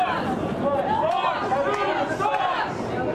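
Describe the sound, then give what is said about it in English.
A large, boisterous crowd chants together, dozens of voices blending into a loud, steady roar that carries without a break through the whole stretch. “We're, we're keeping a, a respectful distance, um, but a loud and very boisterous crowd. You'll start hearing them uh, start up here.”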